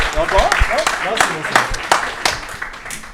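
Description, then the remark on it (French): Audience applause, a steady patter of many hands clapping at moderate volume, with voices talking and calling out over it throughout. “C'est niveau expert Merci à toi, on peut l'applaudir.”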